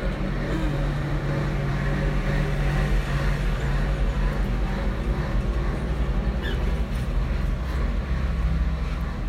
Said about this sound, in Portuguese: Olha só, vai passar um caminhão agora. Vamos deixar ele passar.